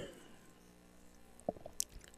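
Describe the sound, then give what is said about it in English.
A person takes a quiet sip of water, with a couple of soft, brief wet mouth clicks and a swallow against a hushed background, no talking. “All right, another drink here.”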